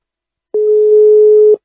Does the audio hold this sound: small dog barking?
no